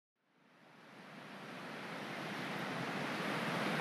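A steady, broad rush of the Tavinja river flowing at Mozirski Gaj park in Mozirje, fades in and swells slightly louder, a continuous hiss with no breaks and no voices.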